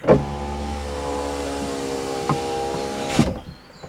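A car's electric window motor whines steadily for about three seconds as the window lowers, ending in a soft thunk as it stops. Fairly loud, with no talking.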